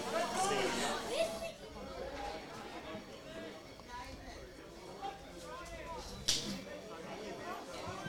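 Steady crowd chatter and murmuring from spectators at a football match at Linwood Park during an Eschol Park throw-in, a dense babble of many voices with a brief louder burst partway through, no single voice standing out.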